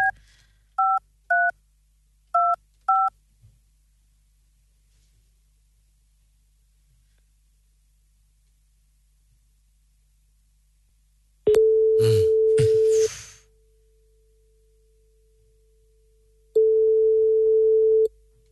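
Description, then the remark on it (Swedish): A quick series of touch-tone beeps as a phone number is dialed to call a radio listener, a pause, then two long ringback tones over the line, with no one talking. “Så vi ringer upp på en gång och kollar om vi kan få möjlighet att ta den då.”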